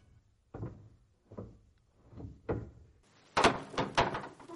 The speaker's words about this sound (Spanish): La puerta comenzó a abrirse.